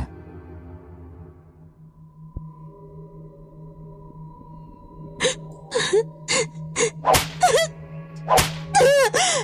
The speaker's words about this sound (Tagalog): Nag-iiyak ako, nagmakaawa sa may-ari ng resort pero paulit-ulit niya akong hinagupit ng latigo.